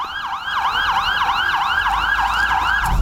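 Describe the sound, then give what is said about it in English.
An ambulance siren wails in a fast, steady rising-and-falling yelp that repeats throughout, loud, over a low rumble of traffic, with no one talking, as ambulances pick up the injured after a warehouse explosion in Lebanon. “Private cars, ambulances, and military vehicles pick up the injured.”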